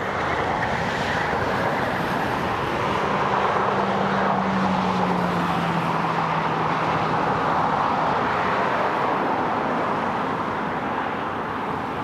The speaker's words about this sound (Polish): Ja mam właśnie akurat dom przy szkole i do tego stopnia, że jak samochody przeważnie już wieczorem, jak przejeżdżają, to jest straszny hałas i dom się trzęsie. Trzęsie się już, już od wielu lat